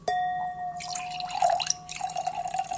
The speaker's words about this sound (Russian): а может быть, вы немножко помолчите, чтобы звук наливающегося вина было слышно?